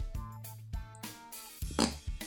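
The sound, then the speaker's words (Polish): A charging pig grunts and snorts several times in quick succession, harsh, loud bursts with short gaps between them, and no voices over it. “Czy to jest szarża? Tak, to jest szarża tego świniaka.”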